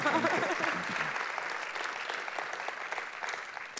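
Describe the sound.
An audience applauds steadily, a dense wash of many hands clapping at an even level. Brief voices show at the start, then the clapping carries on alone before easing slightly near the end.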